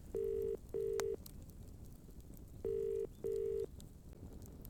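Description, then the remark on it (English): Telephone keypad dialing tones: two pairs of loud, steady electronic beeps with a pause between the pairs, heard alone over a faint background hiss. “I kept calling.”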